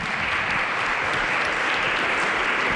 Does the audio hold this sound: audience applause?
yes